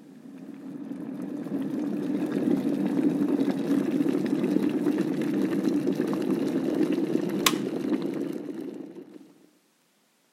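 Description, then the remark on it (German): A kettle of soft water from East Frisia boils for tea with a steady, dense, rumbling bubble and hiss, fairly loud, then cuts off abruptly near the end. No one speaks. “Zuerst wird das gute weiche Wasser aus Ostfriesland gekocht.”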